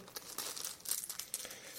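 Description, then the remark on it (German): A small plastic bag holding three small heat sinks for a Raspberry Pi crinkles and rustles as it is handled, with a series of quick, bright crackling bursts over about two seconds. No one speaks. “Jetzt habe ich hier eine Tüte”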